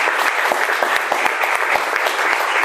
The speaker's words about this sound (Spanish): Dale un aplauso al bendito que vive para siempre.